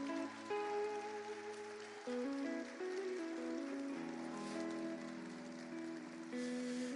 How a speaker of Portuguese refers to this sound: Pode glorificar a igreja, pode aplaudir o nome de Jesus.